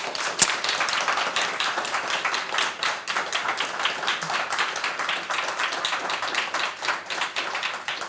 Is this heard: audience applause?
yes